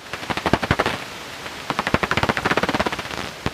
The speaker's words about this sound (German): Wasserfledermaus, wahrscheinlich mehrere Individuen knapp über dem Wasser jagend.